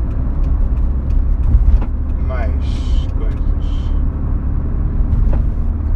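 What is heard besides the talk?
heavy road traffic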